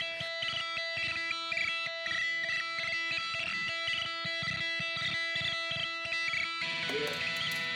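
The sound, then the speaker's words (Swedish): A pasta spoon strikes guitar strings again and again in a quick, bouncy rhythm, each hit a twangy, ringing jolt over steady sustained string tones, fairly loud, with no one talking. “att han slår en pastaslev mot gitarren och får det här studsande lätet.”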